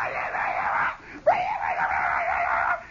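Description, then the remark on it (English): A voice imitates a boy yelling far off in the woods at the other end of a school playground, a sustained strained wail that breaks briefly, then rises and carries on for a couple of seconds before fading. “Farkas is screaming it out”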